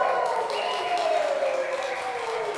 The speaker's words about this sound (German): Applaus für Andi.